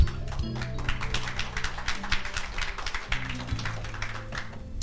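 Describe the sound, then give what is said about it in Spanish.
A church audience applauds for the Lord with dense, steady clapping that holds at an even level for several seconds, while low sustained keyboard-like tones hum underneath. “Le dan un aplauso al Señor.”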